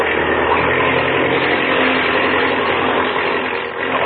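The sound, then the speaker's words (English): An airplane engine roars steadily at full throttle, a loud, continuous mechanical drone with a low rumbling hum and dense midrange buzz that barely wavers for several seconds. “Now, uh, open the throttle up wide. How's she hitting, …? Fine. Turn it over like a sewing machine.”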